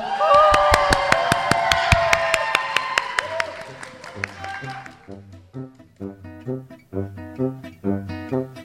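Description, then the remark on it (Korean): An audience at a Seoul village radio public broadcast on September 24 claps loudly for about four seconds, welcoming two elementary school students from a Jungnang-gu village media team, a dense burst of applause with some voices mixed in, before it fades and a voice takes over. “큰 박수로 맞아주십시오”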